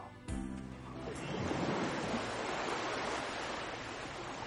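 Ocean waves wash steadily onto the shore of a deserted beach in a broad, continuous roar, with a brief low thump near the start and no voices, the surf loud.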